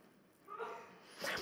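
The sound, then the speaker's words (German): A single quick sneeze bursts out at the end, sharp and breathy, following a brief faint vocal sound; fairly quiet overall. “Und die beiden, Gesundheit?”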